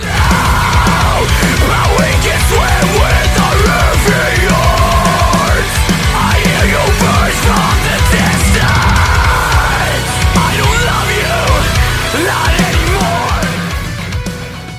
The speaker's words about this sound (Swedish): Håll för öronen nu, för nu kommer mitt vårskrik.